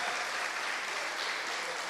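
An audience applauds steadily for God during a sermon, a dense wash of many hands clapping at once, sustained and fairly loud throughout with no voices standing out.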